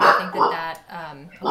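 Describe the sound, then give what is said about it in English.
A dog barks a few times in the background, fairly faint and partly masked, while a person keeps talking over it. “Sorry, that's my dog in the background.”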